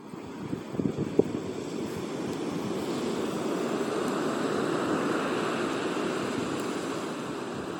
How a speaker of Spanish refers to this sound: os traigo este sonido maravilloso del mar para que respiréis conmigo profundamente, exhaléis, sintáis como si la brisa tocara vuestro rostro, vuestra piel, os conectéis con vosotros como lo estoy haciendo yo ahora